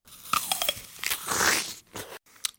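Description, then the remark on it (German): A crunchy bite by a woman into a firm, waxy beeswax candle, followed by a few more crisp crunching bursts that break apart irregularly over a couple of seconds, with no voices. “Dann biss sie ab.”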